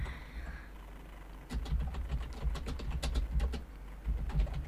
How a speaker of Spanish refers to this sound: se escucha el micrófono, estoy escribiendo en el TikTok